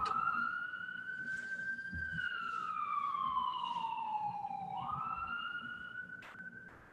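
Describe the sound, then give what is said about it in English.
An ambulance siren on the Upper West Side wails steadily, its tone sweeping slowly down and then back up as it passes along the street, fairly loud over a low traffic rumble. “If you can hear, if you're on the Upper West Side by any chance, you can hear that siren going by.”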